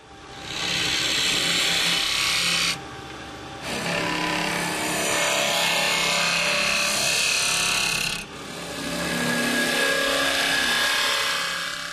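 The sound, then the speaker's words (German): A rough piece of wood for a box, clamped on one side only, is turned on a lathe and hollowed out from the front: a loud, steady, hissing scrape of the cutting tool, broken by one short pause and a brief dip before the rasping resumes. No voices. “Dabei dreht er das Holz von vorne aus.”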